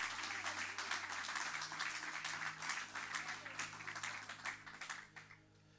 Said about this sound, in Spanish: Alguien dice amén, denles aplauso fuerte al Rey de Reyes y Señor de Señores.